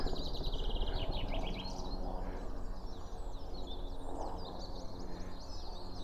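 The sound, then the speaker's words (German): Several birds chirp and trill in quick, overlapping bursts outdoors at a railway level crossing under a deep blue sky, fairly faint against a steady low rumble of background noise, with no one speaking. “Die Vögel zwitschern, der Himmel ist tiefblau.”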